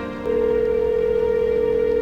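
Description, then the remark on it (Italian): A single steady ringback tone on a phone line, one long unbroken beep of nearly two seconds with nobody speaking, heard through a thin telephone-like channel, as a call placed from a hotel telephone rings unanswered. “Squilla. Il mio cuore batte forte. Squilla ancora.”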